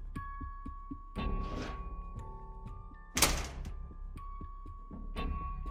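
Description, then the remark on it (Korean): A school gym storage room door swings shut with one loud thunk, set against a low sustained drone with soft, pulsing thumps leading up to it. “마지막으로 나온 제가 체육 창고의 문을 닫고 뒤를 돌았을 때 무심코 인원수를 세어 보았습니다.”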